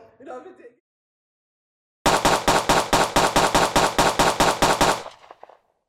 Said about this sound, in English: That's the sound of 14 gunshots.